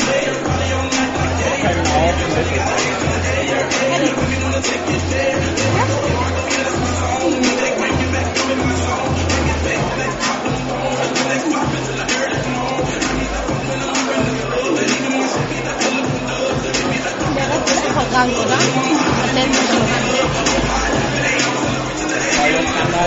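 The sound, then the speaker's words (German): A dense, steady murmur of many voices fills a venue as people keep streaming in from a queue outside before a delayed kickoff, with shuffling and overlapping chatter throughout and one voice briefly speaking over it. “So, also die Info ist, der Kickoff ist tatsächlich um eine Viertelstunde verschoben, weil draußen halt die Leute gefühlt bis zur U-Bahn-Station anstehen und es strömen auch weiterhin Leute rein.”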